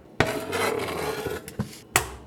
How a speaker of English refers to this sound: I trudge into the kitchen and fill the kettle. It scrapes along the stove as I set it in place and crack on the heat.